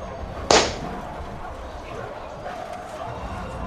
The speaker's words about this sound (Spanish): ¿Hay alguien allá afuera? Da un aplauso para responder sí y, y dos para responder que no.